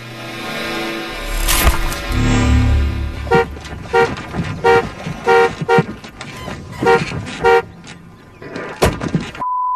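A car horn honks repeatedly in short, loud bursts, around seven quick toots in an uneven rhythm, after a rumbling engine and a door-like clunk, with no talking.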